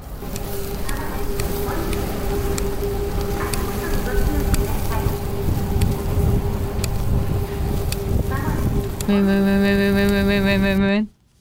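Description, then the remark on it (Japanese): Steady rushing water and wind noise at the Takeshima boat pier by the sea, with a constant low engine hum, ending in a loud, sustained low-pitched boat horn blast lasting about two seconds. “船着き場の音竹島桟橋”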